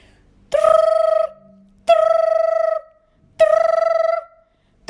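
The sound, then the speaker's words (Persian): A whistle is blown three times in a row from a lifeboat, calling Richard Parker to swim to the boat; each loud, trilling blast lasts under a second with short pauses between, and no one is talking. “ریچارد پارکر خواهش میکنم تسلیم نشو به قایق نجات بیا این سوت را میشنوی”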